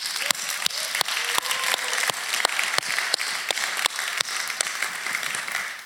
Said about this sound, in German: Ich freue mich, dass ihr hier seid und lasst uns mal allen Menschen, die da sind, einen fetten Applaus geben.